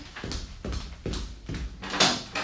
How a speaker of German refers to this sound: Ob das Sicherheitsschloss funktioniert?